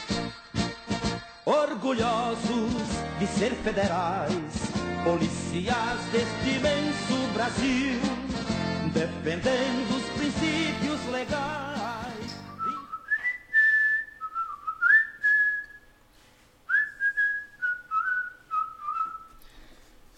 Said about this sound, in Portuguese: aí, meu irmão, já começamos assim, ó, com o hino da PF. Você que tá faz... estudando aí para ser da área policial, vá decorando o hino, viu? Que faz parte do trabalho.